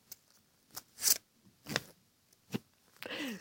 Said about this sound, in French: Ensuite, je vais tirer un deuxième papier.